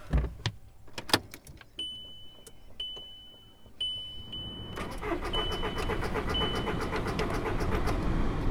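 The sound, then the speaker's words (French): A few sharp clicks and dashboard warning chimes, then the starter of a car that has not been driven for a long time cranks steadily and rhythmically for several seconds without the engine catching. No one speaks. “La voiture veut plus démarrer.”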